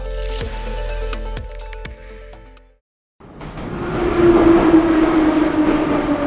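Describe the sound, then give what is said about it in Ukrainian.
A metro train pulls into Akademika Barabashova station in Kharkiv, a steady, loud rumbling roar with a rising electric whine, heard after a brief pause that follows a humming, tonal passage. “Хочеш чи ні, але на виході з метро академіка Барабашова ти обов'язково втрапиш у базар, ринок чи по сучасному торговий центр.”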